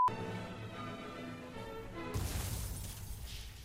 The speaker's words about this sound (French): Mais je me suis craché contre rien du tout me suis craché contre du vent Attends, et depuis quand un, piéton te fait exploser la bagnole euh, Si c'était un sanglier, je veux bien, mais il a pas l'air gros non plus, hein.